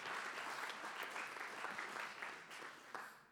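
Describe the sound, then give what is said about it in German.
Steady applause from an audience for the decoration team, a dense crackle of many hands clapping at an even level for a few seconds before easing off slightly at the end, with no voices. “Ja, gebt immer einen Applaus.”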